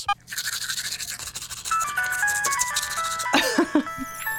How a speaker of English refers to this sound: I know that if I want to create the sound of a termite brushing its teeth, but that termite hears the phone ringing and has to answer the phone with a mouthful of frothy toothpaste, it would sound like this.